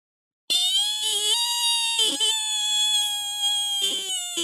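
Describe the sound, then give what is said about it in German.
A long, loud, high-pitched squeal, steady and tonal with slight wavering, runs for about four seconds like the squeak of a heavy stone being slid aside. “Mit einem Quietschen schob er sich auf die Seite. Jetzt brauchen wir ein Quietschen.”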